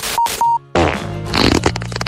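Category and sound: human body sound, fart sound effect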